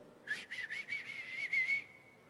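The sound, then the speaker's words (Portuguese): A person whistles an imitation of birdsong: a high, steady tone broken into about seven quick, rhythmic chirps, ending in a briefly held note. No one speaks. “E no bico do passarinho ele colocou como se ele tivesse cantando.”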